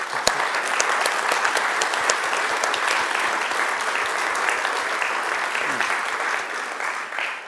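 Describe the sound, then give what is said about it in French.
Steady audience applause for the conference speakers, a dense wash of clapping from many people that holds at a fairly even loudness for several seconds, with no one speaking over it. “En tout cas, euh, merci beaucoup aux conférenciers, je pense qu'on peut l'applaudir encore une fois.”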